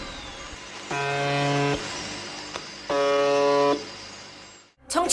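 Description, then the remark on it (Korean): Two loud, low, rasping buzzer tones, each lasting under a second with a pause between, rise out of a steady hiss of shortwave radio static, like the buzzer of a shortwave radio station. “나오는 소리라곤 오직 이것뿐이었어요. 그러면서 여기에서는 더 버저라는 별칭까지 붙이게 되죠.”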